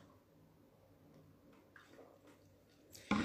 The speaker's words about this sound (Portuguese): Não, deixa eu beber água.